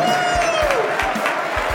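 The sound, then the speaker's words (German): A large crowd cheers and applauds loudly and continuously, with whistles and shouts rising over dense clapping, like an arena greeting a fighter: the USA, entering the western corner of a boxing ring in a star-spangled cape. “Applaus!”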